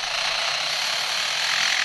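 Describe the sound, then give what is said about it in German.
An Australian lyrebird imitates a construction-site jackhammer with a dense, steady mechanical rattle, loud, continuing without a break for about two seconds, with no voices. “Ja, wir befinden uns jetzt nicht mitten auf einer Baustelle, auch wenn es so klingt, sondern das ist ein Leierschwanz, der eben genau diese Baustellengeräusche nachmacht.”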